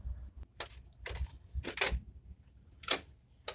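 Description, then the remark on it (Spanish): A hotel key card is placed against the door lock to open the hotel room door: a short series of sharp mechanical clicks and rattles, the last one loudest, with a faint low hum between them and no voices. “Ahí apagué el iPhone y entonces voy a, tomo la tarjetita y la pongo encima justo aquí de la cerradura para que abra la puerta.”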